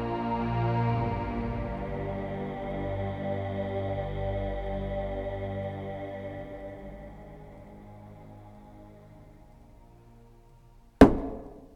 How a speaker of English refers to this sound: Here's a knocking indeed! If a man were porter of, of Hellgate, he should have old turning the key. Knock, knock, knock.